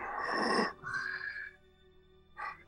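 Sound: imitated heavy panting breathing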